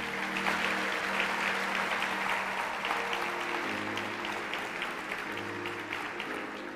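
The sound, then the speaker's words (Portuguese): An audience claps steadily for Jesus for several seconds, a dense, even wash of applause with no voices on top, while low sustained organ or keyboard tones shift pitch underneath. “Dê um forte aplauso, Jesus.”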